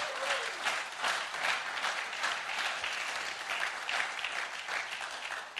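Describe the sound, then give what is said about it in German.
An audience bursts into sustained applause, a dense, steady wash of many hands clapping at once that stays loud for several seconds with no voices on top. “Lasst uns unseren Support immer einen riesen Applaus geben.”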